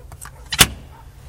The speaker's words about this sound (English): Okay, nobody there. Put a card in the door.